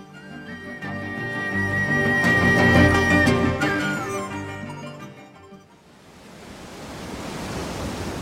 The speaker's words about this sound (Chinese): 白玉小船发出万丈光芒，朵朵浪花撞在小船上，碎成了漫天水珠，发出像仙乐一样好听的叮咚、叮咚的声音。